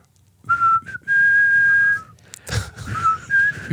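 Close whistling of a short melodic riff: a few held notes, a brief pause, then a breathy burst before the tune resumes and rises at the end.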